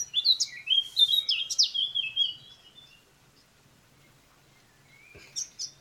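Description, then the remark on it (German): Birds chirp and twitter in quick bright phrases for about three seconds, then fall quiet before a short burst of chirps returns near the end, with no talking. “Vögel zwitschern.”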